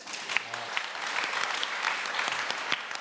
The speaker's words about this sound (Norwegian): altså, sjarmpoeng på første oppgave, det er verdt en applaus